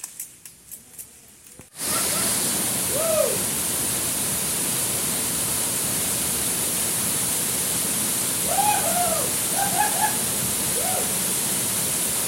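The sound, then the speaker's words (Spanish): After a few soft knocks, a loud, steady roar of a waterfall's rushing water fills the scene, with several brief bird chirps rising faintly above the constant wash. “antes de mostrarles la ubicación de esa cascada, la doble, primero vamos a completar este video que ustedes están viendo aquí.”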